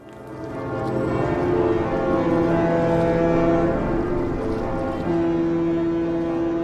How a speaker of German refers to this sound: Die Glocken des Hamburger Michel und die Typhone der Schiffe im Hafen. So beginnt Gruß an Bord seit Jahrzehnten.